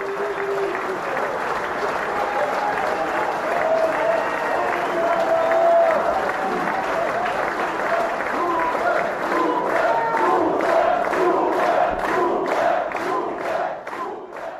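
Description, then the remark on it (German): A packed crowd of Aiwanger supporters in the Weißbierstadel, a barn at the edge of the Gillermoos fair in Lower Bavaria, applauds and cheers in a loud, continuous roar of clapping and shouting voices, the clapping turning into a rhythmic, synchronized beat toward the end. “Eine Scheune am Rand des Jahrmarkts. Draußen überall Plakate mit Aiwangers Gesicht. Drinnen hängen Diskokugeln und Holzkutschen von der Decke. Es ist brechend voll, stickig und laut.”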